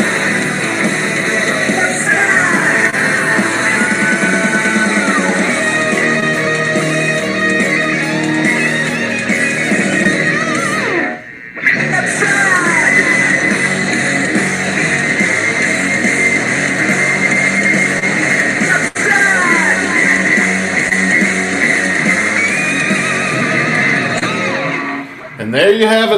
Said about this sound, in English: Well, guys, we've got about 30 seconds left of the song, so let's hear how it ends.